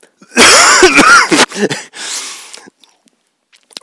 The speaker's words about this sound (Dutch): Ik ga even hoesten